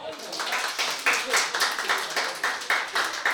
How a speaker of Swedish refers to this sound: Jag tycker han ska ha en applåd till.